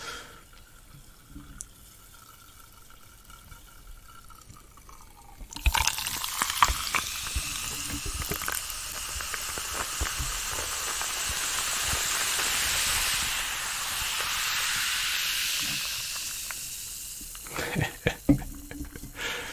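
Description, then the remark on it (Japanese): A weak 5% Jim Beam bourbon highball is poured into a glass and fizzes: a sudden loud, steady carbonated hiss full of crackling bubbles lasts about twelve seconds, then thins to scattered pops. No one speaks. “これ5%しかないから、かなり薄いハイボールです。”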